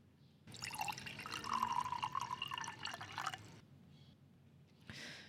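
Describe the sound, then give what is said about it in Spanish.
A liquid pours steadily into a glass for about three seconds, its gurgling pitch creeping upward as the glass fills, followed by a brief splashy burst after a pause. No voices. “Si a alguno le pareció que la interpretación de la canción anterior no fue la indicada, quizás significa que todos deberíamos servirnos un trago.”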